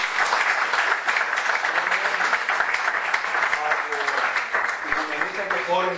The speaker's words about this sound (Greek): θα σα μιλήσω για δύο εξαίρετα εκπαιδευτικοί, του οποίου παρακαλώ θα θέλω να χειροκροτήσουμε. Έχουν έρθει από τα Ελλάδα.